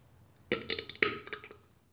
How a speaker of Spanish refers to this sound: Estoy tomando mate, así que disculpen los eructos.